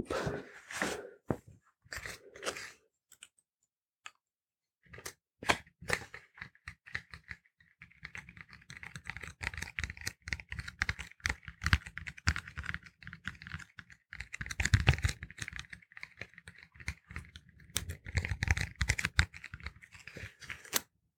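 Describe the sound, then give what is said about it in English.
Crisp scratching of a pen on a notepad as notes are made during a body examination, quick bursts of strokes broken by short pauses, steady and dry with no one speaking. “make a few notes on my notepad as I just examine all the areas of your body just to see what I need to fix, what sort of damage I'm dealing with.”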